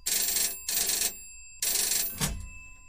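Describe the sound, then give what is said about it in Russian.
A telephone rings in the dispatch office of Kyiv's Boryspil airport in three bright electronic bursts, each about half a second long with short pauses between, followed by a brief thud as the ringing cuts off. No one speaks. “Примерно в то же время в диспетчерском пункте Киевского аэропорта Борисполь раздался звонок.”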